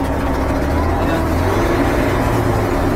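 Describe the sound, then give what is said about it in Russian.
A loud, steady engine roar drones for the full three seconds, heavy and throbbing like a vehicle being driven hard at high throttle, with no pauses or talking. The vehicle is driven through a clutch and steered with left and right levers, with the throttle pressed to the floor. “Газ можно до полика зажимать и газовать.”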